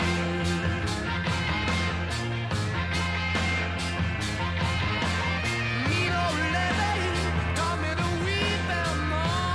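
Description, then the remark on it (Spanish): A harmonica enters a loud, dense rock track, its wavering reedy lines riding over steady drums, thick bass and distorted electric guitar, with reverb echo on the left channel. No one speaks. “Y ahora entra la armónica.”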